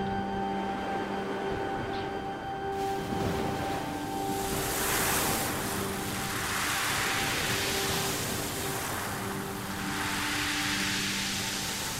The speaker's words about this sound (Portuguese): Pequenas ondas quebram na proa do barco e borrifam nossa pele. Junto com a brisa, refrescam e nos acalmam.